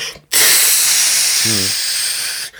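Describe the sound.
A long, forceful blast of breath roars steadily for over two seconds, loud, as someone blows hard into an imaginary balloon in a balloon exercise, with a brief low murmur partway through.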